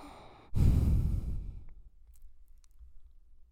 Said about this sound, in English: Can you hear my deviated nasal septum? I can. It's not proper breathing. I'm about 30% blocked on my right nasal side.